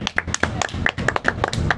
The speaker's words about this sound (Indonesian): Aplaus buat adik-adik yang sudah mendapatkan uh, nominasi. nominasi dari adik-adik 48. Oke. Okay. Tepuk tangan, tepuk tangan.